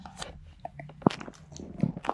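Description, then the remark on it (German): Quiet smacking and chewing noises, a few irregular wet clicks and soft crunches of someone eating a Bockwurst sausage, with no talking. “schmatzt leise ganz leise Folge.”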